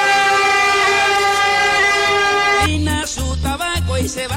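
A loud, sustained horn blast holds steady for a couple of seconds, then gives way to a rhythmic series of pulsing, booming tones. No one speaks.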